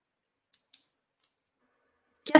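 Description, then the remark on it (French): Three quick, crisp scissor snips, sharp and high-pitched with short gaps between them, followed by a louder, fuller rustling cut at the very end. “Ah, oui, je suis en train de couper.”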